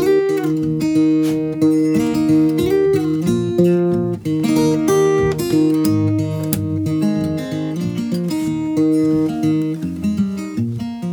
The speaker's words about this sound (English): and I put a finger uh, picking arrangement to that. That sounds like this.